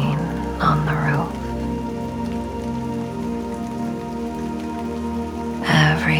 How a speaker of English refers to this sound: The droplets fall down the window pane. The pitter patter of rain